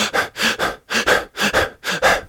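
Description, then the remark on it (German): A person demonstrates the panting used in an intense phase of childbirth: about ten quick, breathy in-and-out huffs in a steady rhythm, fairly loud, with no talking. “Das heißt, wenn ich jetzt dort bin und hechel”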